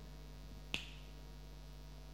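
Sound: finger snap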